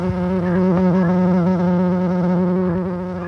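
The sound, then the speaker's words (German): A bumblebee buzzes steadily, a deep, continuous drone with slight wavering in pitch, loud and alone with no voices. “Jetzt hören wir mal, wie sich eine Hummel anhört.”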